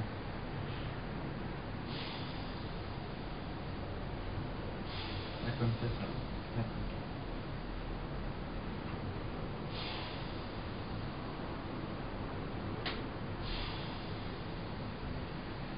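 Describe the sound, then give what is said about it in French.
A breathing machine hisses steadily, with soft whooshes of air recurring every few seconds in a loose cycle as it pushes air in and leaves time to exhale. The sound is fairly quiet, with no speech. “Pour expirer, la machine vous laisse le temps d'expirer. Est-ce que la machine, elle va trop vite Ou est-ce que c'est bien adapté à votre respiration”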